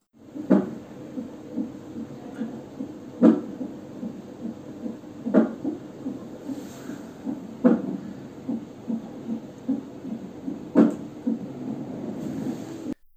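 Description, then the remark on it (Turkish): Fetal heartbeat on an NST (non-stress test) monitor: a fast, steady whooshing pulse throbbing continuously, broken by a handful of sharper thumps from the baby's kicks at irregular intervals. No one speaks. “Şimdi burada duyduğunuz bu vık vık vık sesleri var ya onlar bebeğin kalp atışları.”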